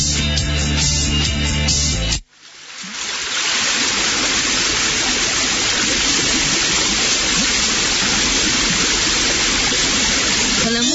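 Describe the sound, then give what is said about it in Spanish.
A brief burst of music cuts off, and after a short pause a steady rush of flowing river current fills the rest, loud and continuous with a constant broad hiss. “música del río y la fuerza del surubí.”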